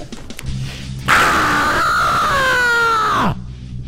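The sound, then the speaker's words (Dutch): A person lets out one long, loud scream lasting a couple of seconds, sustained and slightly wavering in pitch before cutting off abruptly. “Hè, ehm, is zo uithalen iets wat u vaker doet, schreeuwen, of is het eh, nu eenmalig?”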